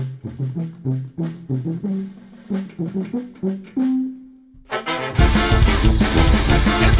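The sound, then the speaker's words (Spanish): A band song opens with a sparse melodic intro of clear, separate notes, then the full band crashes in loud and dense with driving drums for the final seconds. “vamos a iniciar con música.”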